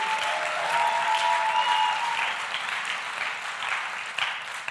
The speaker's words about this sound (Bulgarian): О, ако вярваш в това, защо не му дадеш едно истинско дарение на ръкопляскане?